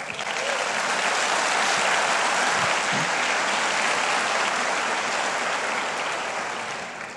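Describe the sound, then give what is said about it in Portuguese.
An audience claps for the Lord together in sustained, steady applause lasting several seconds, a dense wash of many hands at a constant loud level that tapers slightly at the end, with no voices standing out. “Aleluia, aplauda o Senhor.”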